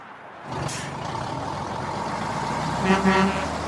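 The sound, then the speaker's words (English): A tractor trailer rumbles steadily, with a short sharp hiss of air brakes early on, then near the end a loud, low, blaring truck horn honks twice in quick succession over the engine drone. “I've driven my tractor trailer millions of miles and I've seen it all.”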